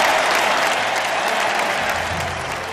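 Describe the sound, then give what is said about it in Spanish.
A loud, sustained ovation: dense, steady clapping from a large crowd that holds at an even level for the whole stretch, with no voices standing out. “Venga, que esa ovación es para Carlos Galván.”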